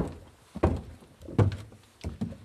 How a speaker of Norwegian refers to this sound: Tunge skritt i trappa opp i arresten her, ja.